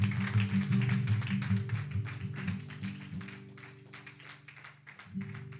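A crowd claps steadily and continuously over sustained keyboard chords, applauding God during worship, the dense bursts of applause lasting several seconds without voices.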